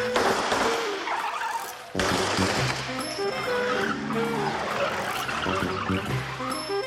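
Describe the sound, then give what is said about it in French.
A powerful, sporty Citroën Traction Avant car roars past at speed, tires squealing and screeching over a loud, continuous engine rush that dips for a moment before surging again. “un modèle de voiture de chez Citroën qu'on appelait la traction avant, qui était une voiture assez euh, sportive, puissante”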